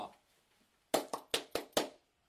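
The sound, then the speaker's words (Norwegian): A single person claps five times in quick, slightly uneven succession, each clap sharp, following a stretch of quiet with faint murmured voice at the start. “Jeg gir applaus, for han har opplevd mye drit her i livet”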